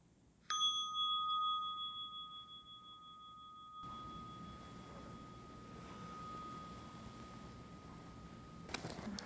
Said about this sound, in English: and then listening for the sound of the bell to open your eyes.